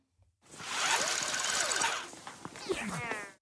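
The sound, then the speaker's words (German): A dense, steady mechanical whir of tape rewinding runs for about three seconds. Squeaky, warbling pitch sweeps rise and fall through it, growing more chirpy toward the end before it stops abruptly. “Nein, da wird was zurückgespult.”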